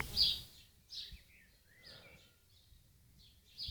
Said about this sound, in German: Das Geräusch, das man braucht, um in Ruhe nachdenken zu können. Was ich meine, natürlich der Lärm der Vögel hier im Garten.